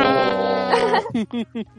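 A voice imitates the crackling hum of Kylo Ren's crossguard lightsaber from Star Wars: a sustained, buzzy drone for about a second, then three short, harsh crackling bursts in quick succession, fairly loud.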